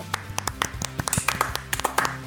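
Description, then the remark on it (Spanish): Hearty applause from a small group welcoming a guest on a Saturday show on radio FM Sombras, a dense run of sharp overlapping hand claps over a low musical backing, steady for a couple of seconds. “Un fuerte aplauso”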